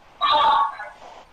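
A sudden burst of harsh, ringing audio feedback over a phone line, loud and tonal for about half a second, then trailing off into a fainter, garbled echo.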